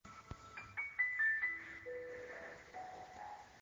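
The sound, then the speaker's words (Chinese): Soft background music with a melody of bright, high tones and chirping bird calls woven through it, fairly quiet, with no one talking. “蝉鸣、鸟叫，没有蝉鸣，应该是鸟叫声。”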